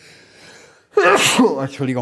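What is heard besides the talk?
sneeze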